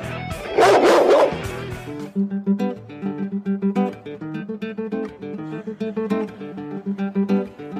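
A dog barks loudly in a short burst lasting about a second, then the barking stops and steady, rhythmic music with plucked notes carries on alone.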